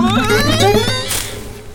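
A cat at the top of a tall tree meows once, fairly loud, a drawn-out tonal cry lasting about a second, followed by a short breathy noise as it fades out.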